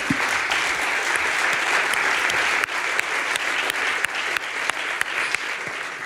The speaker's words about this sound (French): Et puis vraiment, blague à part, on décompte aujourd'hui près de 41 900, 41 900 vues sur nos lives Facebook et ça continue de grimper. Donc le festival, ouais, on applaudit ça, ouais.